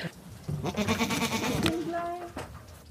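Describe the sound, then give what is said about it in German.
Two large white goats bleat as they come toward the listener on an alpine pasture, the Grottenthaler Alm near Taubenstein in the Spitzing mountains, on a warm summer day: a wavering, quavering cry stretching over a couple of seconds, then a shorter second bleat, fairly loud. “Ja, da kommen erstmal zwei große weiße Ziegen entgegen”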